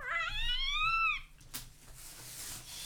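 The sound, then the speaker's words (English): A single drawn-out cat meow, rising then falling in pitch, clear, followed by a soft click and quiet background noise with no talking. “And even the cat's like, what the heck?”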